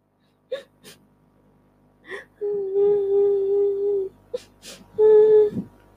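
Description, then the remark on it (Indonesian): A voice imitates a sad mother squirrel crying after bats took her young: a few sharp, breathy gasps, then a long, drawn-out wailing sob and a shorter second wail, fairly loud. “Induk tupai menangis sedih.”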